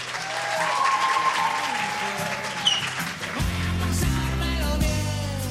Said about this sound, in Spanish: Que se escuchen fuertes esos aplausos, ¿no, chicos?